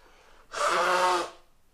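A single loud sneeze, a rough breathy burst with a voiced edge lasting under a second, rising out of near silence and fading quickly back to quiet.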